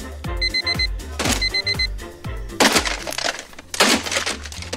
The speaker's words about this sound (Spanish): Hoy en día tanto relojes como nuestros teléfonos inteligentes se encargan de levantarnos diariamente con estos espantosos sonidos.